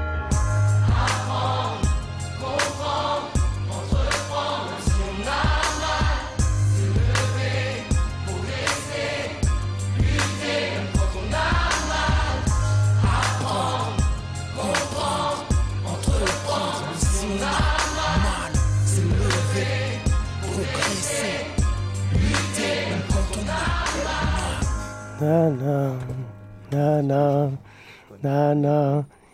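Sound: song playing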